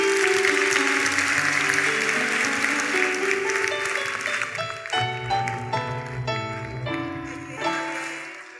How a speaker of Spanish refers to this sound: Ajá, los felicito, los felicito. Aplausos para todos, los felicito.